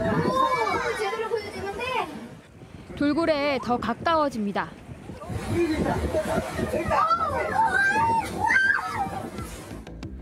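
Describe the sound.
A crowd of tourists on a dolphin-watching tour boat off Daejeong-eup cheers and exclaims in excited, rising voices as dolphins come into view, overlapping in a lively babble, while a man speaks over the commotion.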